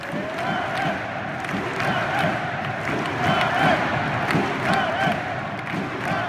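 A large crowd at a Catalan polling station on 1 October 2017, during the independence vote, chants "Vota rem" ("we will vote") in unison, a dense roar of many voices with a repeating rhythmic pulse, loud and steady throughout, with occasional shouts rising above the mass.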